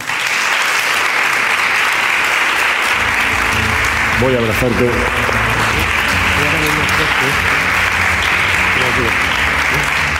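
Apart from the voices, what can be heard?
audience applause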